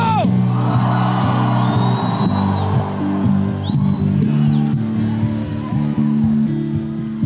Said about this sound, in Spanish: Se você crê, dá um grito.